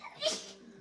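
A single quick sneeze bursts out, a short sharp hiss of breath that fades within a fraction of a second, fairly soft and with no talking around it.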